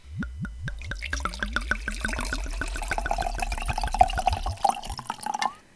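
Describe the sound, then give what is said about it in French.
Wine glugs from a bottle into a glass in quick rhythmic pulses, the pitch climbing steadily as the glass fills; clear, with no voices. “Vous l'avez compris, aujourd'hui nous parlons de vin.”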